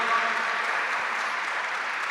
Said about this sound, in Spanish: Dale un fuerte aplauso a la palabra de Dios. Gracias Señor.